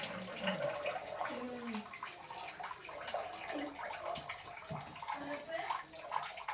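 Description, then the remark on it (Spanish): Water sloshes and splashes steadily in a bathtub, fairly loud, as a child does experiments with water, the child's voice chattering over the continuous wet churning. “y haciendo experimentos con agua.”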